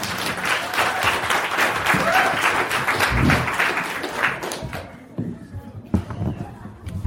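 Audience applause: dense, steady clapping for about five seconds as two guests are invited to come forward, then thins out and fades as a few scattered claps and voices remain.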